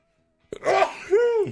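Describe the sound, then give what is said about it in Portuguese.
A single loud sneeze bursts out after a moment of silence, with a voiced, drawn-out wail-like tail as it fades. “eu vou espirrar, você ia falar?”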